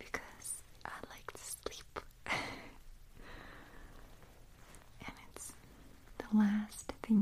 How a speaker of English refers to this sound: hear is the crinkling of the pillow and sometimes rustling of the sheets.